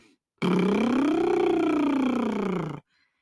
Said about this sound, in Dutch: We gaan naar de laatste oefening, het liptrillen. Je doet bij het liptrillen als het ware een auto na. En auto's eh, zeggen, zoals we dat bij kinderen vaak aanleren.